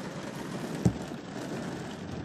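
Heavy rain during a thunderstorm drums steadily on a car roof in a dense, even hiss of patter, with one sharper knock partway through; no voices.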